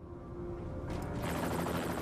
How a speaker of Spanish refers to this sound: Después de llegar a los Estados Unidos, un helicóptero transportó al prisionero a un lugar seguro.